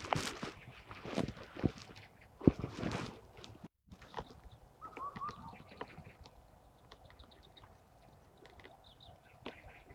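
Birds call during birdwatching on the north bank of the Sha River (Shahe), over a noisy outdoor background: a brief warbling call in the middle, then scattered faint, high chirps, after some louder clattering and rustling bursts at the start.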